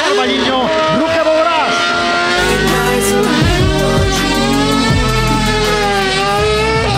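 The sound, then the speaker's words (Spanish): Loud racing car engines roar continuously during a hill climb competition, their pitch rising and falling as the drivers rev hard and shift, with a low rumbling undertone throughout. “Ya ha comenzado la competición, ya ha comenzado la emoción. en los motores, en el ruge”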